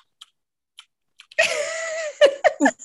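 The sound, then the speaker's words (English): Someone imitates loud, open-mouthed chewing of chips: a few faint mouth clicks, then a sustained wet smacking noise ending in three sharp, crunchy bursts. “And though the people who like pop those chips and they gotta chew them like this,”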